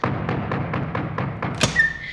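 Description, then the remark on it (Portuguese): Knocking on a door: a quick, steady series of about seven hollow raps, ending with one louder bang followed by a short, thin, high ringing tone. No one speaks. “Mas criou coragem e foi na casa do vampiro. Bateu na porta.”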